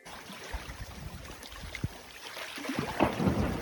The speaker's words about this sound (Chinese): 这是北极融冰的声音，冰川崩裂，轰的一声，像是打雷般惊人。